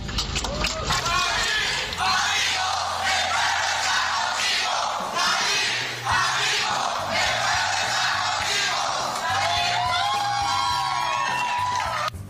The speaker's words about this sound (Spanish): ¡Aplausos, por favor.